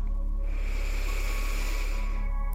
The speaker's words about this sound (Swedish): Och vi andas in igen.